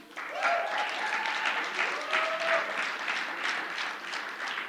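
An audience claps steadily for several seconds, a dense, even wash of applause with a faint tonal whistle or cheer rising through it near the start.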